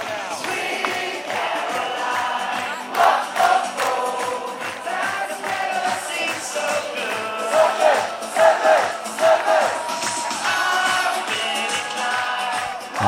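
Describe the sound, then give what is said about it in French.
A large crowd of supporters sings a chant together at the start of number 1, loud and sustained, with the melody rising and falling over a steady rhythmic pulse; no one speaks over it. “c'est un peu notre coup de cœur, hein, cette chanson euh, entonnée partout, évidemment, toute la, tous les supporters au départ du 1.”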